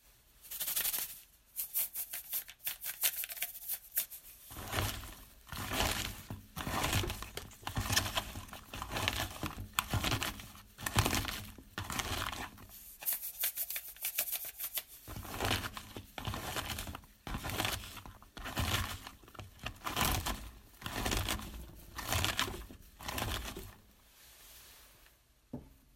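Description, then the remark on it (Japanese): Repeated crinkly squishing and crunching as chopped napa cabbage is salted and kneaded by hand to soften it for a napa cabbage salad, recorded by a listener in Hamamatsu, in irregular rhythmic bursts with brief pauses, no voices. “白菜サラダ少ししんなりさせるための下ごしらえとして塩もみをしている時のなるほどね、音を取るのに夢中になってしょっぱいサラダになってしまいましたうん、うん、いいですねあのこう何て言うかレンジがあって低いゴリゴリしたところとあのちょっと高めの音と”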